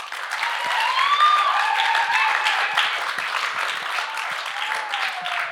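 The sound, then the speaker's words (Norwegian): An audience applauds a visiting guest steadily for about five seconds, a dense, even wash of many hands clapping at a constant loudness, with a few whoops or whistles rising above it. “Kom, gi han en eh, applaus.”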